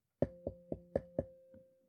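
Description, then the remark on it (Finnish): Five quick, evenly spaced knocks on a window, then a softer sixth, each leaving a brief ringing hum. The knocking is fairly loud, with no talking. “Niin onko tässä vähän niin kuin sama, että joku vaan voi tulla silleen koputtaa ikkunaa?”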